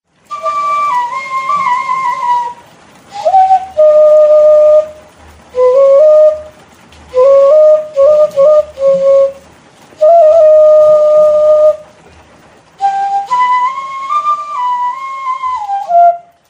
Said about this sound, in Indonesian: Suara seruling yang dimainkan oleh Pak Saringat terdengar syahdu di antara kabut yang menggelayut dan rintik hujan yang turun di kampung Wonomulyo, Desa langit Kecamatan Poncol, Kabupaten Magetan, Jawa Timur.